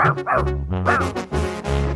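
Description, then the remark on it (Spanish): Dogs bark and yip in a quick run of loud, strained, drawn-out calls, overlapping with almost no pause between them. “Tenemos unos perros.”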